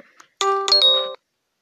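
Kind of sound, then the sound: signal or alarm, phone message notification chime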